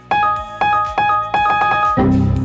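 Computer error message alert sounds from the era of connecting to the internet by dial-up modem chime in quick succession, four bright electronic tones stacked close together, followed by a denser, buzzier alert at the end. No one speaks.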